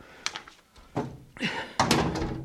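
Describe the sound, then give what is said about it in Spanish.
A door swings shut with a couple of solid wooden thunks and a rattling latch, followed by a brief creak and clatter as it settles. “ahora cierro la puerta.”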